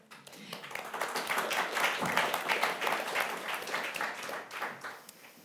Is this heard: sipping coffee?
no